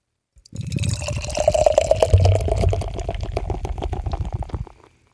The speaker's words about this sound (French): Allez, je verse.